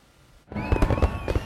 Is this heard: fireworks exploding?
yes